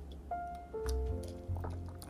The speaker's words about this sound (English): I'm not drinking none right now. I'm drinking some good old water.